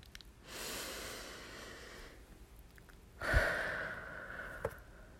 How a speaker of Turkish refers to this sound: Derin bir nefes al burnundan ve ağzından yavaşça ver.